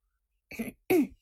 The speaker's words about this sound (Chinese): 剑客似乎也觉得自己的行为有些幼稚，但。还是咳嗽一声，用一种严肃的口吻说道